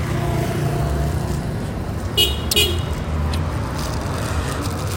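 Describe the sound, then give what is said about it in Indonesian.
Steady roadside traffic rumbles at Proliman Rekul, heard from a motorbike parked at the roadside, as a passing truck gives two short honks of its horn midway through, the engine noise continuing underneath. “kayak karena saya di pinggir jalan duduk di atas motor tepatnya di uh, Proliman Rekul”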